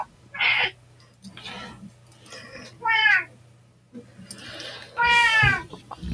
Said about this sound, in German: Vielleicht, wenn Nala noch ein bisschen weiter miaut, kommt wieder Felbi.